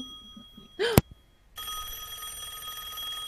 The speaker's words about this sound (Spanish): Ah, no, llamaban por teléfono.